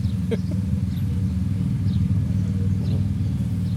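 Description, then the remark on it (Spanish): Two Select motorcycles that have just arrived idle, their engines giving off a steady, deep rumble that stays loud and even throughout, with faint bird chirps in the background. “Ese sonido, amigos míos, que habéis oído llegar, pues son las dos motos que estamos criticando.”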